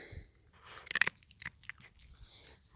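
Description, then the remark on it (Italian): Crisp crunching as something crunchy is chewed, with a loud burst of bites near the middle followed by softer, irregular chewing sounds against a quiet background. “che sgranocchia in sottofondo,”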